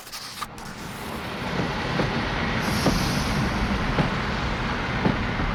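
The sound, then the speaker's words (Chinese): A train rumbles steadily as it pulls into a station, a low continuous roar with faint periodic clacks of wheels and a brief hiss of air partway through; no one speaks. “火车在圣彼得堡一停下来，她下了车”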